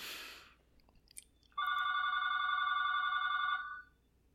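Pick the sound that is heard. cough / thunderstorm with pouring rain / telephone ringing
telephone ringing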